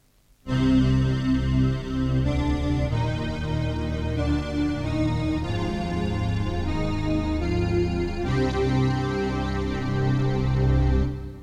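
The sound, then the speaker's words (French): A brassy synthesized horn plays loud, sustained chords that shift every second or so, holding steady for about eleven seconds with no voices. “Et enfin, on termine avec le horn 1.”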